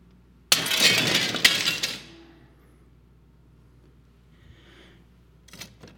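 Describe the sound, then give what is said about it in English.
A piece of plain, non-safety glass is broken in a demonstration: it shatters with a loud crash, a second sharp impact follows a moment later, and shards tinkle and settle into quiet, with a faint clink near the end. “Here's just a piece of glass.”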